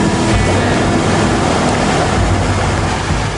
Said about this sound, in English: He's now driving through water. It's crazy.